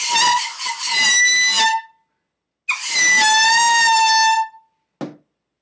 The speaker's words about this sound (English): Like you got the air horn. We got the air horn.